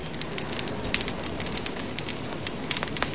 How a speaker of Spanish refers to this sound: Hace tanto tiempo, mucho tiempo atrás, el hombre se juntaba así en una fogata, como la que estoy viviendo ahora, a contar sus aventuras de cacería, sus aventuras de vida.